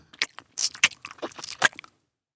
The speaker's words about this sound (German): Hab's mir gedacht, sagte Omar und zerbiss knackend Fennecs kleinen Schädel.